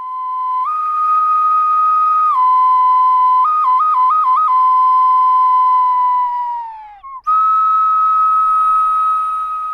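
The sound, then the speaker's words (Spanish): A small clay bird whistle (piril or shul), a traditional fair toy, blown steadily and loudly, its bright tone stepping between two pitches, trilling quickly in the middle, then sliding down and briefly breaking off before resuming. “Sí, Estoy hablando de los piriles o shul, esos pajaritos de barro característicos de cada feria, esos pequeños instrumentos que convierten nuestro soplo de aliento en un sonido.”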